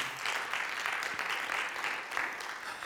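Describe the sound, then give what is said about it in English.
A church audience applauds the Lord steadily, a dense wash of many hands clapping at once, sustained and fairly loud throughout without any break or speech. “But see, yeah, you could give the Lord a great round of applause.”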